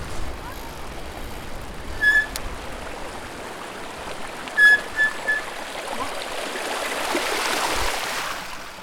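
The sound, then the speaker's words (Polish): Steady rushing and splashing of water as they ride through a shallow stream crossing, swelling louder toward the end, with a few short high-pitched squeaks in the middle. “przejazd przez wodę, ale już będziemy musieli wracać, prawda?”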